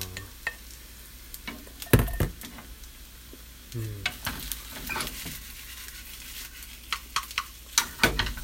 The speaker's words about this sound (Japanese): あの、フライパン回しましたけど、うん、ね、全然ご飯粒が取れない。全然ご飯粒が取れない。でこんなこと言ってるうちにもう、あと4分ですね。4分で本当に炒め終わるのかな